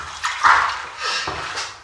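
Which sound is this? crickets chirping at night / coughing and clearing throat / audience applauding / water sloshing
water sloshing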